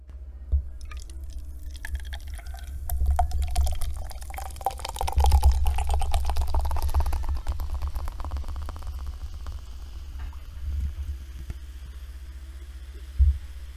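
Red Bull soda from a can is poured into a glass, a steady pour swelling in the middle, followed by crackling fizz and scattered bubbling pops as it settles, over a low background hum.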